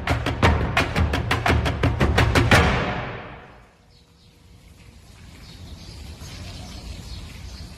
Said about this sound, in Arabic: هاد صوت الهدوء في حي النزلة اليمنية ما بعد الإخلاء وقبل الإزالة الأهالي فضوا بيوتهم ورحلوا